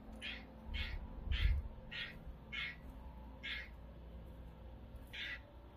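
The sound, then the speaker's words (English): A frog calls repeatedly outdoors by a bedroom window on a sunny day, about seven short croaking notes at a steady, unhurried pace over a low background rumble, with no one speaking. “This is a frog.”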